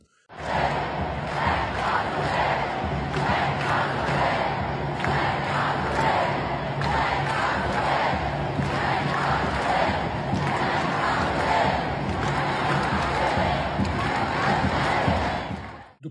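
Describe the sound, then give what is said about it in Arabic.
A large protest crowd of thousands chants and shouts together in a sit-in inside Grand Central station in New York, in solidarity with Palestine, a loud, dense roar of many voices sustained for the whole stretch with rhythmic swells. “شفنا آلاف اليهود بيعتصموا داخل محطة جراند سنترال أكبر محطة قطر في نيويورك تضامنا مع فلسطين”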